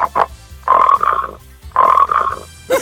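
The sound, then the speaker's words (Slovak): Someone imitates a man's loud snoring at night with their voice: two long, raspy, rattling snores in a row, fairly loud, with a few short vocal sounds before and after. “On spal dole a ja hore v detskej som to cez e, to potrubie krbové počula, jak takto chrapčí.”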